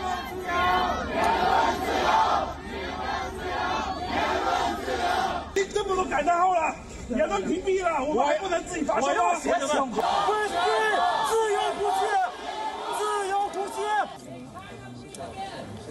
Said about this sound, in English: on Sunday, a crowd gathered in Chengdu. People held up blank sheets of paper. They chanted, We don't want lifelong rulers. Many were heard shouting, Freedom of press, freedom of speech.